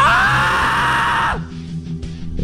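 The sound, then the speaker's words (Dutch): A loud, deep human scream bursts out and holds steadily for over a second before cutting off, leaving faint low murmuring behind. “Is dit nu nieuw of, of is dit hoe jij gewoonlijk eh, schreeuwt?”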